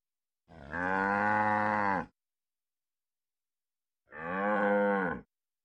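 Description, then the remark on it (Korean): A dairy cow, the only one a poor family kept for milk, moos twice, each call long and loud, with a pause of a couple of seconds between them and no other sounds around. “식량이라고는 텃밭에서 가꾸는 야채와 젖소 한 마리에서 나오는 우유가 전부였는데 그나마 겨울에는 소먹이를 구할 수 없어 우유도 거의 나오지 않았다.”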